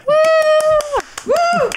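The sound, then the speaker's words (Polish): Steady hand claps from a single person, about five or six per second, sharp and evenly spaced, running under a sustained sung or hummed voice that holds two long notes with a brief gap between them. “Teraz, teraz biła brawo jedna osoba, chciałbym powiedzieć, i to nie byłem ja.”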